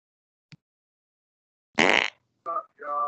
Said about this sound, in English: Who the fuck just farted? Bro, bro? Hold up, bro. Did somebody just fart, bro? that had to be you.